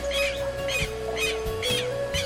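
An odd, honking bird call repeats in four or five harsh bursts, roughly evenly spaced, over a steady low hum, fairly loud with no talking.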